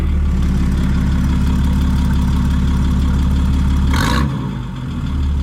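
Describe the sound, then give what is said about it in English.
A loud Cummins diesel truck engine rumbles at a steady idle through a modified exhaust, its deep throbbing steady, with a brief sharp hiss of air near the end. “That's definitely Cummins for sure.”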